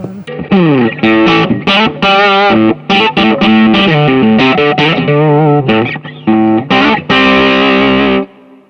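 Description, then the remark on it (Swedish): A fuzz pedal's distorted guitar tone plays a busy run of bent, sliding notes, thick and buzzy with harmonics, loud and alone for about eight seconds before cutting off. “Uh, nej men VMRAN-fussen låter ju så här.”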